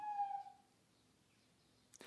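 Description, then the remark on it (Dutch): An owl gives one clear, drawn-out hooting call that fades away, followed by a stretch of quiet and a short sharp click at the very end. No one speaks. “Misschien roept hij een andere uil.”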